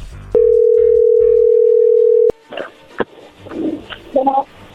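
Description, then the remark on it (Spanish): A telephone line rings with one loud, steady tone lasting about two seconds, cutting off abruptly, followed by faint rustling and muffled background murmurs. “bueno, a ver, allí entró la llamada, no hagan ruido.”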